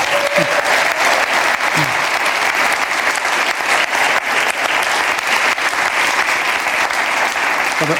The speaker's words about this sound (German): Geben wir mal einen Applaus.